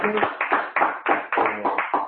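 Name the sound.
audience applause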